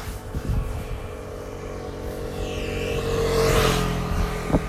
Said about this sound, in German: Kommt wieder ein Motorrad.